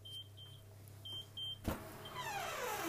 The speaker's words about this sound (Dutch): En daar gaat een wekker. Dus ik ga even kijken hoe het met mijn bodem gaat.